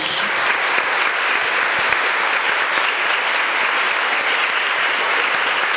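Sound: audience applauding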